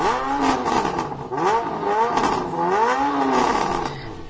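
A motorcycle engine revs loudly, its pitch sweeping up and down repeatedly as it roars past, with no voices over it.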